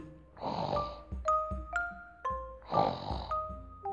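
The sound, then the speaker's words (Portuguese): Two long, rasping snores from a grandmother in a cozy bed, roughly two seconds apart, each broad and breathy, with bright bell-like chimes ringing in between over a soft, steady background. “Nessa cama tinha uma avó uma avó roncando”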